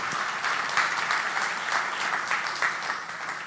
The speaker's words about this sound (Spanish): Ahora, yo quiero que despidamos con un aplauso a estos voluntarios que yo tengo aquí.